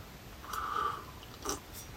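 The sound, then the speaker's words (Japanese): A short slurping sip of hot whiskey, Busker Irish whiskey mixed with hot water, from a glass lasting about half a second, followed by a soft click or swallow, with no talking. “ということでこれを飲もうとうわーめっちゃいい匂いするな、えー、使ったのはアイリッシュウイスキーバスカーアイリッシュウイスキーにお湯を注いでお湯割りにしましたホットウイスキー”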